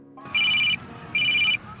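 A mobile phone ringtone sounds twice, high-pitched electronic tone bursts in a steady on-off pattern, loud over faint background noise.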